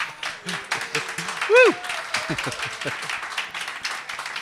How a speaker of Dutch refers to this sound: Er zijn klappende mensen, dus het is echt live.